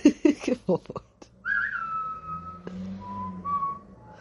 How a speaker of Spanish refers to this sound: Hace un silbido así de, de como chungo. eso no es un silbido chungo, eso no lo pongo.